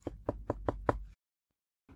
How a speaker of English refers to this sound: They walked up the path and they knocked on the door of the hut.